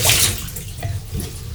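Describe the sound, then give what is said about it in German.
Water is poured out of a coffee pod machine being emptied, splashing out in a short pour, a bright rushing spill that starts strongly and then trails off into lighter trickling and splatter, with no talking. “Maschine aufmachen, den Padhalter leer entleeren, denn das Wasser entleeren, wegkippen.”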